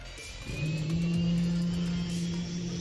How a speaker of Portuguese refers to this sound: Tudo começa com a respiração. O ar que vem do pulmão passa pelas pregas vocais, fazendo com que elas vibrem e produzam um som. Ele é mais ou menos assim.